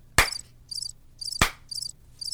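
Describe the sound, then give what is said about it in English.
A crickets sound effect: crickets chirp in steady, rhythmic high-pitched bursts, interrupted twice by a sharp, loud knock. The chirping is clear, with no voices. “Anyway, crickets, crickets.”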